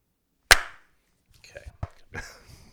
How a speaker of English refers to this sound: I think we need to clap again. Okay, we need to clap again. Okay. Yep. Ready? Three, a two, one.